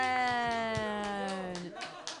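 A full-house audience at a comedy show claps for a performer in a steady, rhythmic patter of hand claps, running beneath a sustained, bright tonal sound that holds one pitch before fading near the end.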